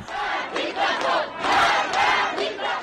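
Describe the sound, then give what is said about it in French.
A large crowd in the street in Iran chants anti-regime slogans, including "death to the dictator", in unison outdoors, loud and dense, its voices rising and falling in rhythmic surges with each repeated phrase, filling the whole span without pause. “Dans la rue, la foule scande des slogans anti-régime ou encore mort au dictateur, référence à l'ayatollah Ramenei, le guide suprême.”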